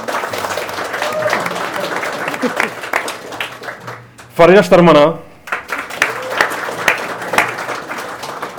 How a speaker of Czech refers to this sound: Můžete mu zatleskat. Můžete mu zatleskat.